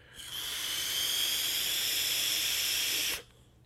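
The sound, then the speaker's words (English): A steady, bright hiss of vapour from a 0.38-ohm e-cigarette coil, holding for about three seconds at constant strength before cutting off abruptly; no one speaks. “Anyway, this is a 0.38 ohm coil. Have it set to a modest 53.”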